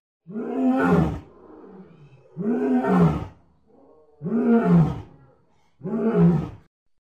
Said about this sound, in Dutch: Kun je een paar van die dieren laten horen voor de mensen thuis? Lion.